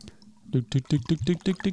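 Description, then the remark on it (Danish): Beer glugs out of a bottle into a glass in a quick, steady series of about seven gurgling pulses, fairly loud, with no talking over it; poured on Funen, Denmark, in spring. “Jeg kan hælde op i Skal vi dele den så?”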